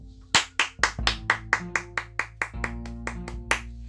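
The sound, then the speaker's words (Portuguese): A quick, steady round of hand claps, about a dozen sharp claps in even rhythm, applauding a story just told, with soft sustained musical tones humming underneath. “Quem gostou, bata palmas para ela.”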